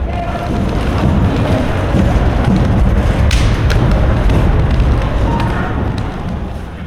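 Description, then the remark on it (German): A white cane taps on a steel bridge: a few sharp, irregular metallic clicks, fairly faint beneath a steady, loud wash of rumbling background noise. “also wenn man jetzt mit diesem Stock über, über diese Brücke geht, dann hört man eben, dass das aus Stahl, also aus Metall ist, die Brücke.”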